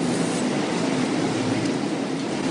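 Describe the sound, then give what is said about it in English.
A loud, unbroken wash of din in a busy, packed restaurant, recorded while waiting for an entree to come out, a dense steady roar with no single voice standing out and no pauses throughout. “I recorded during each sort of before each entree came out, just how busy the restaurant get.”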